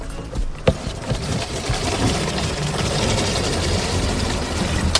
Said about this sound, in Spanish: Se acercan a coger el agua. Vamos a ver si podemos escuchar cómo cae el agua en este momento. Así suena el agua.